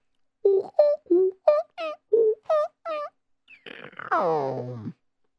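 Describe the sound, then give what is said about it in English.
A voice imitates push-button phone dialing tones: eight quick, evenly spaced vocal beeps at varying pitches, then one longer, wobbly tone that slides down into a low groan. “Well, how come this one doesn't make noise? It depends what kind of uh, you know push button phone you have.”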